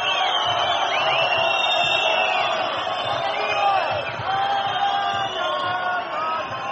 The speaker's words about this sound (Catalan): I sí, efectivament, la xiulada és... Sí, sí. I és important, que... eh? Sí, La xiulada de Vidorreta és important, eh? déu nhi eh?